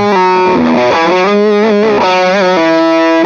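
A distorted electric guitar played through a boost pedal with a midrange control, set for heavy midrange, plays a short melodic phrase of sustained notes and bends, its tone thick and mid-heavy with rich harmonics, loud and continuous with no talking.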